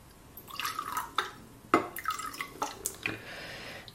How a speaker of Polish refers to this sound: Dobrze, ja sobie przygotuję teraz miks e, soku i wody, tak jak mówiłam wcześniej, żebym już miała go gotowy.